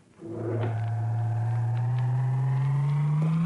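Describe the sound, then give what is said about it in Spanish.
A Toyota pickup truck engine drones steadily as the vehicle drives to a factory at dawn, a low hum that rises slowly in pitch as it gathers speed, with faint rattles over the top and no voices. “Cuando apenas amanece, una camioneta Toyota le lleva a su destino y su destino es la fábrica.”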